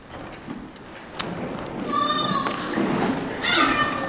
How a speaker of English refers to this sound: Love to hear them babies. Love it.